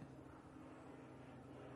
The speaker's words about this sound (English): Jesus Christ, that fucking plane is close. These fucking people out here are, are, are lunatics the way they fly. There's fucking people in helicopters and airplanes. They fly like 800 feet above the fucking ground.